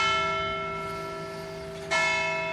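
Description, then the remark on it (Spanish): A resonant bell rings with a long, humming decay, then is struck again near the end, its bright tone swelling back up. It sounds close and fairly loud, with no voices. “Ya me habías tocado la campana.”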